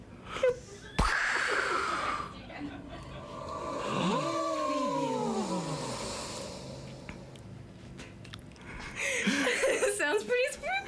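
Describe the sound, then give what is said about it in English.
A voice imitates a spooky ghostly moan, with long wavering, sliding wails over a few seconds, preceded by a sharp click and followed by breathy, wheezy vocal noises. “I think those ghosts did a bad imitation of my spooky ghost noise.”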